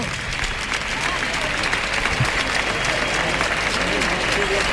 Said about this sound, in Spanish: Y ahí saludando la ovación A ver qué pasa, porque hay pañuelos, ¿eh?